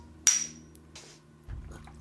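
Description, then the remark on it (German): Wine glasses clink together once in a rather hard, vigorous toast: one sharp, bright strike with a short high-pitched ring that fades quickly, followed by soft rustling and a low thump. “Hab ich so ein bisschen doll gegen Ein bisschen ne? sehr schwungvoll.”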